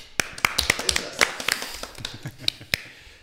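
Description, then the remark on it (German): A brief, sparse round of applause for Illy of Heavy Metal Home TV: a dozen or so sharp, crisp hand claps at an uneven pace, fairly light and thin, with no voices over them. “Und für den gibt es heute auch noch einen kleinen Applaus.”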